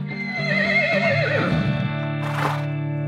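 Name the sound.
horse neighing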